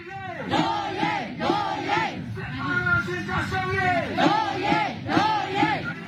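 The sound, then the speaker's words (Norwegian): A protest crowd chants the battle cry "Doje", meaning "our rights", in unison: loud, rhythmic shouted phrases repeating roughly every second, voices swelling and falling over a steady wash of crowd noise. “Altså det er en, en del av et kamprop, da.”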